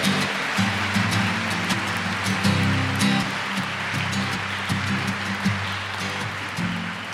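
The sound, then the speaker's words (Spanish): A crowd applauds steadily for several seconds, a dense, even patter of many hands clapping, with a low sustained hum underneath and no voices. The applause is for the Virgin Mary, the Queen of Heaven and Earth, during a celebration of the Immaculate Conception. “Un aplauso para la Reina del Cielo y de la Tierra.”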